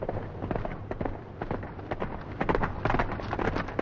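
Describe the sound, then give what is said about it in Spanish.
Horse hooves clatter in a rapid, uneven rhythm, with wheels rumbling as a horse-drawn hearse carrying a coffin, pulled by two black horses, crosses a bridge and moves away from Dracula's castle. The sound is steady and fairly loud, with no talking. “Un coche fúnebre con un ataúd y tirado por dos caballos negros cruza el puente y se aleja del castillo.”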